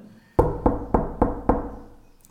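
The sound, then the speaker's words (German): Five evenly spaced, firm knocks on the door of a wooden cabin at 10 p.m. on a dark winter night during a snowstorm, each with a short resonant thud that fades quickly, leaving a brief decay afterward. “Wer klopft denn an der Tür, Alter?”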